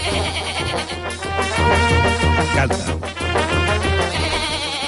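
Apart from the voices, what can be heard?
goat bleating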